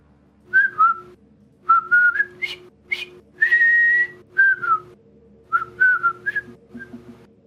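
Someone whistles a cheerful, bouncy melody very faintly in short phrases separated by brief pauses, with no talking over it.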